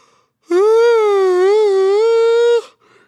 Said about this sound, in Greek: και ακριβώς για αυτό το λόγο εσύ μετά ε, χασμουριέσαι και η ζωή σου πάει σκατά, θα ξαναχασμουριθώ τώρα.